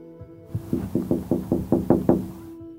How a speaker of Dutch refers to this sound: Ze klopt een paar keer op het raam.